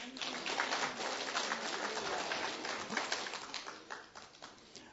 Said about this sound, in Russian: Можешь дать Господу аплодисменты.